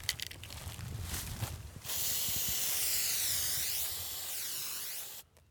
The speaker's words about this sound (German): Markiert werden die Bäume, die gefällt werden, mit einer Sprühdose.